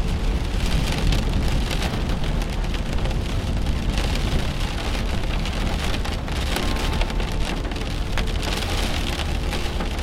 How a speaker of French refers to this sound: oiseaux réfugiés dans les arbres, comme vous, à l'abri de la pluie et au cœur de l'orage.